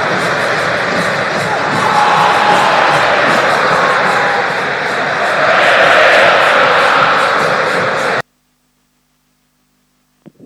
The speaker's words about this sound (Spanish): Escuchen el ruido del travesaño y por supuesto después en el ambiente de la cancha de River el grito de gol de los jugadores de Banfield.